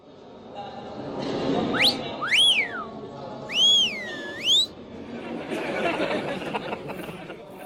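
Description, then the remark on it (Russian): Male students of a medical college whistle and jeer: several rising and falling wolf-whistle glides cut sharply above a low, rowdy crowd chatter and scattered laughter, with the whistles loud and shrill over the murmur. “Что за шум? Мужская часть колледжа не выносит самой мысли о женской конкуренции.”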